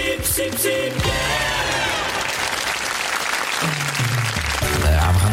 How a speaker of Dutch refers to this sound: Beginnen we zo op NPO Radio 5. Dus een hele keurige, nette zender. En daar mag ook wel eens een applausje voor klinken.